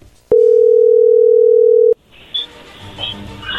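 A single loud, steady, low-pitched ringback tone of an outgoing phone call to a woman sounds for about a second and a half, then stops abruptly, leaving faint crackly line noise.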